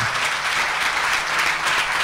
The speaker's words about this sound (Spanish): Vamos a dar un aplauso a Jesús por estos valientes.